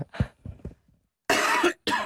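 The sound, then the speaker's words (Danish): Two loud, harsh coughs, the first longer and rough, the second short, preceded by a few quieter throaty huffs and breaths. “Undskyld, jeg hoster.”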